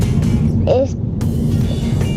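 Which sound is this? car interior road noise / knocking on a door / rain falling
car interior road noise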